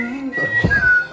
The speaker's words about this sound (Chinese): 可是为啥突然吹口哨？